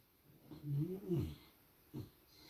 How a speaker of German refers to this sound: Und die Geräusche im Hintergrund ist der Hund. Mm finde richtig eklig. Die träumt und ihre Augen sind verdreht und sie macht ihre Augen auf. Da sieht man nur weiß.